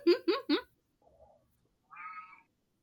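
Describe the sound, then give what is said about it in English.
A cat meows loudly three times in quick succession, followed by a faint short mew and then a higher, drawn-out meow, with no one talking. “She's been auditioning for the part of Cat of Halloween Town for like 16 hours.”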